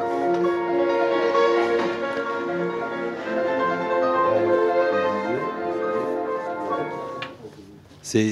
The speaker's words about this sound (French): Ça, c'est la, la chanson pour dire que le cours est terminé. C'est la sonnette du collège, quoi. La sonnerie.